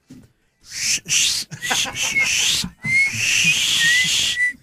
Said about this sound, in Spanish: Seguramente le chiflabas a las muchachas, ¿no?